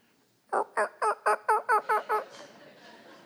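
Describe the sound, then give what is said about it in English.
A turkey gobbles in a rapid burst of about eight loud, evenly spaced warbling notes, then trails off into quiet background noise. “And the same is true with turkeys.”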